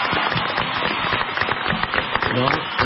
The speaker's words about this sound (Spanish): Un aplauso a mis especialistas, que amo y adoro